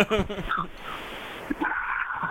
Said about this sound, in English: I like the breathing heavy. I love the heavy breathing.